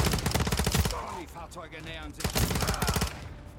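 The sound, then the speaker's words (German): Video game gunfire: two loud bursts of rapid automatic fire, each lasting about a second, separated by a brief lull with a fainter, wavering tonal sound. “Weiter feuern!”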